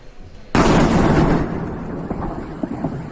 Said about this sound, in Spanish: La guerra ya ha comenzado. Durante la noche se observaron explosiones, no solo en la zona fronteriza, sino también en las inmediaciones de la capital ucraniana, Kiev.